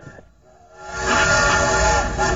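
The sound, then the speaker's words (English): A steam train whistle swells in after a brief quiet moment, a sustained, loud, breathy tone with rumbling noise beneath, holding steady to the end. “My friends, my friends, get on board, get on board, hop on board this train”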